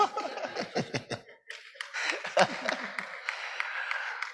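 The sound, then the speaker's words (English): Laughter bursts out, then gives way to a patter of hand clapping from an audience, loud, quick and uneven, with chuckles and voices mixed in. “oh, I thought she's clapping for me.”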